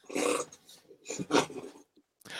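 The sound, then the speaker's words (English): A dog growls and snarls in several rough, throaty bursts, moderately loud, with short pauses in between and no talking. “Are you going to bring the dog back?”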